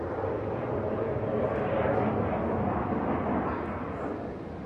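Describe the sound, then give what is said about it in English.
A deep, steady roar of fighter jets flying over in an unusual flight pattern, loud and continuous for several seconds, with a broad rumbling texture that tapers off slightly at the end. No one speaks. “So we have some fighter jets apparently going over here.”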